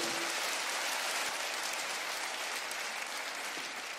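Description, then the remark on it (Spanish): A crowd claps steadily for several seconds in applause to the Lord, a dense, sustained wash of applause with no one speaking over it. “Diga, el que busca, dígalo, el que busca, si va a aplaudir, dele fuerte ese aplauso al Señor.”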